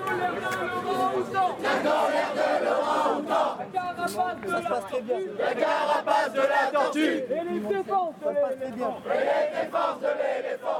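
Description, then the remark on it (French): A loud crowd of many voices, Extinction Rebellion climate activists at a blockading occupation in front of the Assemblée nationale on Saturday 12 October, shouts and chants together in rising, rhythmic waves, filling the scene continuously from start to finish. “Samedi 12 octobre, les militants et militantes d'Extinction Rébellion voulaient frapper toujours plus fort avec une occupation bloquante ambitieuse devant l'Assemblée nationale.”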